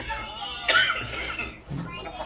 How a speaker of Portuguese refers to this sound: Essa tosse aí, tá saindo sangue?